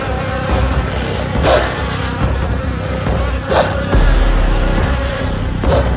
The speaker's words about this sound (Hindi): उसने देखा सीलिंग पे एक जलता मधुमक्खियों का छत्ता था और सारी मधुमक्खियां भिन भिनाती हुई उसकी ओर आ रही थी